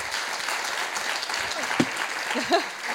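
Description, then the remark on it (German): An audience applauds steadily for three seconds, a dense crackle of many clapping hands with a couple of brief voice-like bursts rising above it. “Es gibt noch einen großen Applaus hoffentlich.”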